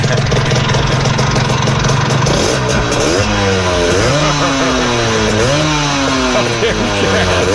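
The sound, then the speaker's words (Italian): A loud, raspy small engine fitted with a handmade custom exhaust drones steadily, then revs up and down in repeated swells, its buzzy pitch rising and falling much like a chainsaw or brush cutter. “Ma è una Vespa o un affare per tagliare gli alberi?”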